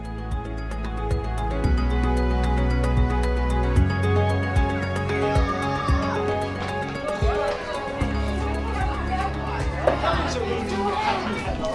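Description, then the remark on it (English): Young children chatter and call out in a nursery playground in Sheringham, pouring water into watering cans, with scattered footsteps and bumps of play, a lively, continuous hubbub of small voices. “So I'm in the playground at Sheringham. I'm watching all the kids play, pouring water into watering cans.”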